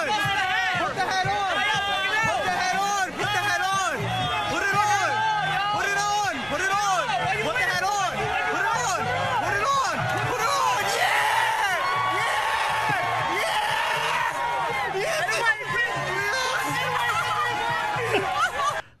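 A New York stadium crowd cheers and shouts nonstop as security asks a fan to take off a MAGA hat, countless overlapping voices rising and falling with scattered whoops, staying loud and dense for the whole stretch without a single clear speaker.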